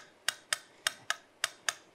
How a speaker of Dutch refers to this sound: Nou, op het moment dat ik in die slip raakte, ging die metronoom van gewoon tikkend in feite opeens heel veel sneller tikkend.